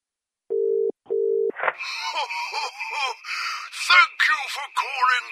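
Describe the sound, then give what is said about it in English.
A telephone ringing tone purrs twice in quick succession, a steady double burst heard over the line while calling a Santa phone line at Christmas, then excited voices break in and keep talking. “Oh, it's ringing! It's ringing.”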